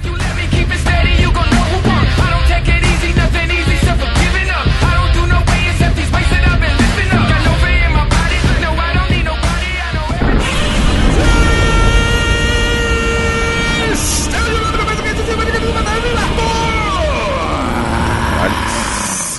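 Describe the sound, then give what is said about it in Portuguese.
Someone imitates Godzilla's roar, a loud, harsh, sustained screech with strained harmonics that holds steady, then bends and slides downward in pitch as it trails off. “fez um Godzilla melhor do que eu com esse gritinho aí.”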